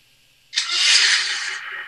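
After a faint hiss, a sudden loud, harsh horrified scream of a superhero character bursts in and holds for over a second, noisy and rushing like a car roaring past, fading slightly at the end.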